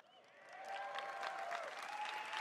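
A large audience bursts into applause that swells within the first half second and holds as a dense, steady wash of clapping, with a faint sustained tone running underneath.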